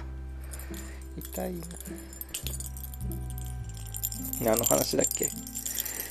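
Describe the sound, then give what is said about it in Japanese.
Brisk jangling of metal collar tags in a few rattling bursts as a dog jumps on the speaking man, mixed with his speech and a low steady hum. “すいません犬犬に襲われてますすいませんうわ”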